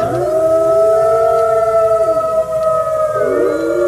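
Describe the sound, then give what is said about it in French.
Several wolves howl together in a loud, sustained chorus, their long tones overlapping and sliding up and down in pitch for the whole stretch, with no one talking. “Alors je vous rassure tout de suite, Renault, ce n'est pas la bande son des forêts d'Île-de-France.”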